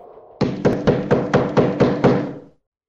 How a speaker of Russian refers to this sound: Наконец, она уже почти провалилась в сон, но из полудремы ее выдернул громкий стук в дверь.